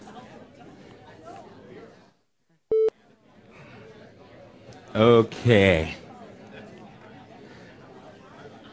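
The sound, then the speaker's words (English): A room full of audience members chatting with their neighbours about times they were rescued, in a low, steady murmur of overlapping conversations. A brief silence and a short electronic beep break it, and then a voice speaks up loudly over the babble. “just take a minute and talk to someone if you next to you say have you ever had to been rescued by something maybe you were in a car whatever serious or not go ahead and just take a couple minutes”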